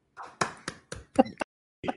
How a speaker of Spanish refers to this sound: Por favor, deja de estar aplaudiendo.